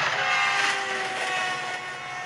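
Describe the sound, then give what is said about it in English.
A train rumbles steadily along the rails with a dense, continuous roar and faint high squealing tones, heard from on board the moving train, with no voices. “Now on the train on the way to Grandma's.”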